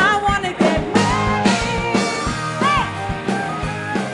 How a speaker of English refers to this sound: Music credits are as follows. Song title, …, by artist …, from the Free Music Archive.